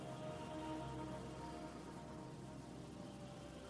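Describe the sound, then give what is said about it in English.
A steady, broad rushing wash of ocean surf holds at an even level throughout, with no distinct individual wave breaks and no voices. “as you hear the sounds of the ocean in your ear.”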